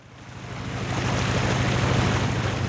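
A roughly 25-foot wooden boat moving through a narrow, muddy river in northern Bangladesh in the dry season, with a steady rushing wash over a low, rhythmic engine thrum that swells louder after the first moments and stays continuous, with no voices.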